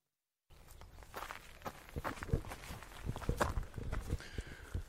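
Footsteps crunch steadily up Ellemandsbjerget, a hill in Jutland, Denmark, on rough ground, fairly loud, with an uneven walking rhythm and light outdoor ambience; no one speaks.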